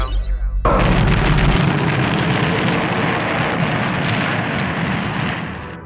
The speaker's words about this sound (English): Mission Control ready for takeoff. 3, 2, 1, 0.